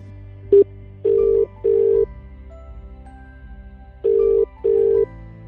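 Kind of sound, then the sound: signal or alarm, phone call ringback tone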